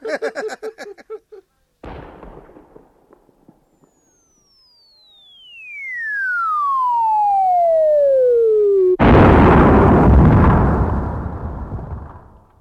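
A cannon shell fired by the opponent whistles down in a long falling tone, then bursts loudly into a sustained, rushing hiss of smoke from a smoke grenade. A short thump and faint rumble come earlier.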